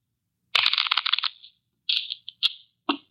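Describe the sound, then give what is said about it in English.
A new deck of playing cards being shuffled: a long crisp riffle burst, then a few shorter papery flutters and snaps, fairly loud, with no voices. “Here's a new deck. Shuffle them”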